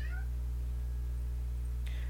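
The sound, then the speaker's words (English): A cat named Dynamos gives one short, fairly faint meow at the start, then goes quiet apart from a brief rustle near the end, over a steady low electrical hum. “Dynamos is our other cat baddie who decided to put his two cents in it.”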